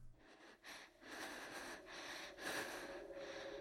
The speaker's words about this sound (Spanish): pero esto al igual que el dolor de mis heridas, desapareció en cuanto escuché algo que solo puedo describir como una respiración a mi izquierda.